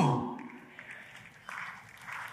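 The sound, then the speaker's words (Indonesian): Crowd applause, a dense wash of clapping that runs steadily for a couple of seconds at moderate volume, swelling slightly toward the end, after a brief voice-like sound at the start. “Oh kalau mau tepuk tangan, tepuk tangan yang paling meriah saudara itu.”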